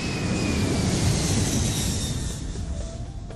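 A loud, steady airplane engine roar fills the space, with a thin high whine riding over the rumble, easing off slightly toward the end. No voices.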